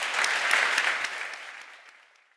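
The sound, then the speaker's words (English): An audience claps together after a talk in a dense, steady burst of applause that gradually thins and fades away over a couple of seconds, with no voices on top. “Let's thank both”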